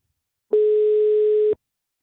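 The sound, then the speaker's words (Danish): A telephone busy signal from a call to a number in Nakskov: one steady, mid-pitched electronic beep lasting about a second, starting and stopping abruptly, with silence on either side and no voices. “Altså har de bare ekstraordinært travlt i Nakskov? 1, 2, 3, 4, 5, 6, 7 nummer har vi ringet til.”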